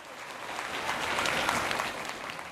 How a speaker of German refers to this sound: Denn die Studierenden, die der Rektor der LMU, Bernd Huber, gerade begrüßt, sind alle nur 8 bis 12 Jahre alt. Sie sind Teilnehmer der ersten Münchner Kinderuni. Nach der Begrüßung gibt's Applaus für den Unichef.